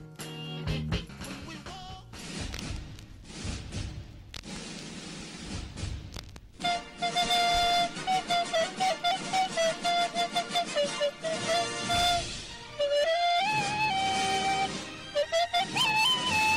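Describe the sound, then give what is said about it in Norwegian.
A soul song plays loudly with no talking, opening on a dense, noisy wash before a steady melodic stretch with a wavering, sustained lead line over full backing. “men først så skal vi uh, spille en liten låt.”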